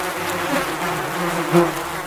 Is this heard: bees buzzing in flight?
yes